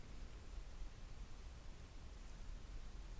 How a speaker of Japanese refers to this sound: はい、プラス30。プラス30すると、ちょっとホワイトノイズが乗るんだよね。結構、ちょっとどころじゃなく ホワイトノイズ結構乗るな。ホワイトノイズ結構乗って、ってます。